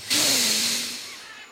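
A single deep, breathy inhalation, a loud airy rush that starts abruptly and slowly fades over about a second and a half, with a faint voiced undertone, as listeners are told to breathe in deeply at the end of a guided relaxation.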